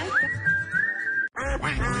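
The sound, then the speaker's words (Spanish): A long, steady whistle tone gives way after a brief pause to loud duck quacking, raspy and harmonic, filling the final moments with no one talking; the quacking opens a radio advertisement for the Pepe Ganga store. “Llegaron los patos a Pepe Ganga.”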